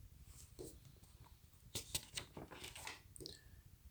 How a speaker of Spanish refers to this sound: Ese fue el ruido de una página.